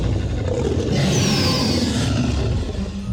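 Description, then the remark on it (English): A loud, deep roar from Stuart the dinosaur rumbles for about three seconds, unbroken, with a rasping, rising edge midway through and no voices over it. “The Dinosaur who Lost his Roar”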